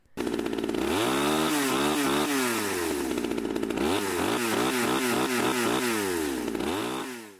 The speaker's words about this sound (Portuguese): curiosidade é que a motosserra usada no filme ela é movida a combustível, ela não é movida a eletricidade. Então, apesar do título em português ter ficado Massacre da Serra Elétrica, de elétrica aquela serra não tinha nada.